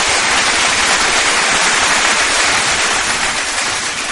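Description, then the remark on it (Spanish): Loud, dense applause played on Sonic Town Radio fills the whole stretch, a steady wash of many hands clapping without pauses or swells, and no voices are heard over it. “por supuesto aquí en la señal de Sonic Town Radio, aplausos con y estamos en la final.”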